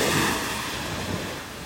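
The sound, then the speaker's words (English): A steady, full rush of sea surf washes along the shore in the morning, a fairly loud hiss of water with some wind mixed in, and no voices. “Like I said, this life that I'm living right now and then I'm having my mornings here at the sea, it's it's not luxurious life for me.”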